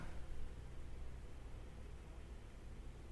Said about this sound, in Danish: Så er det en trafik, der er derude på Storgade, hva'?